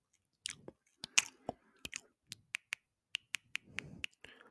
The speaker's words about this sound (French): Tu peux aussi malaxer tes objets, faire des bruits de bouche. faire des bruits de bouche du genre.